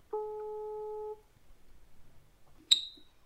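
A single steady telephone ringback tone of an outgoing contact-tracing call from the Norwegian Institute of Public Health lasts about a second, loud and clear, followed by a quiet pause and then a sharp, bright click as the line seems to connect.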